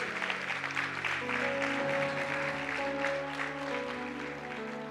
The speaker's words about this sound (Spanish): ¿Cuántos dan un fuerte aplauso por Jesús?